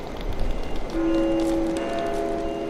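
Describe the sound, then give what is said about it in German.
An ICE high-speed train, the ICE 884 from Würzburg toward Hamburg, rumbles along the rails with a steady, broad roar, and a sustained high whining tone rises over it partway through. Fairly loud, no voices. “steigen meine Mutter und Charlotte in Würzburg in den ICE 884 Richtung Hamburg”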